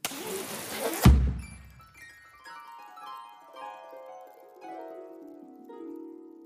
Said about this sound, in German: Kaum waren sie ins Herzhaus hereingetreten, gab es einen lauten Knall und eine Konfettikanone überschüttete die beiden Socken mit herzförmigen Konfetti.